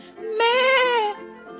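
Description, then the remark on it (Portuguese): A single drawn-out, wavering bleat from a human voice mimicking a crying sheep, loud, lasting under a second with a quavering tremble. “pulava outra ovelha, não caía na lagoa, caía na pedra, quebrava o pé e chorava. Mé!”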